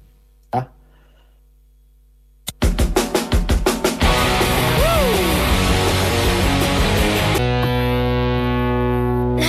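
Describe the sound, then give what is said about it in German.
A short radio jingle: after a click and a moment of silence, loud distorted electronic music bursts in with rapid stuttering hits and a swooping pitch sweep, then holds a dense sustained chord. “wir machen eine kurze zum. ja, so eine ja? Jingle.”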